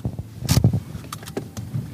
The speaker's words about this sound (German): Wir parken das Auto ein paar Häuserblocks von der Kneipe entfernt.